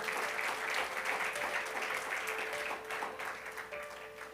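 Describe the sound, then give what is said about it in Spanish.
An audience claps for God steadily for several seconds, a dense, continuous wash of applause that stays loud throughout, with a faint sustained tone humming underneath and no one speaking. “Dale fuerte el aplauso a Dios, por favor.”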